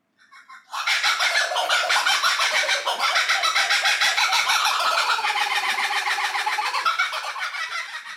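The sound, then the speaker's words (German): A laughing kookaburra, a bird of the kingfisher family, calls loudly, bursting in after a brief start and rolling on for several seconds as a dense, raucous, rhythmic cackling chorus with no talking. “Ich habe euch mal drei davon mitgebracht, zum Beispiel der Name dieses Vogels, lachender Hans aus der Familie der Eisvögel.”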